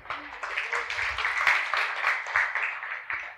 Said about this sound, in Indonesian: Sebenarnya jauh Anda jauh lebih kuat yang setuju tepuk tangan untuk Tuhan.